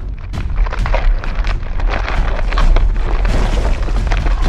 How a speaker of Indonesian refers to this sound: Wah, ada gempa. Awas, awas.